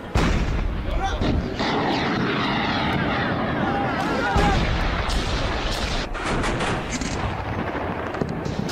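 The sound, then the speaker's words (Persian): Loud, continuous roar of missile launches and artillery fire on the coast during an Iranian Revolutionary Guard naval exercise in the Persian Gulf, in Bushehr and Hormozgan provinces, defending Iranian islands, with several heavy booms bursting through the rushing noise and faint voices mixed underneath. “دفاع از جزیره های ایرانی با شلیک کوبنده موشک ها و آتش پیش برنده در ساحل است”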